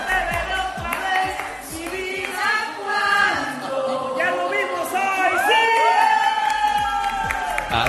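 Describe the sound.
A loud crowd cheers and shouts continuously to celebrate Cruz Azul's championship win, with many overlapping voices whooping and yelling at high pitch, the roar swelling and staying strong throughout.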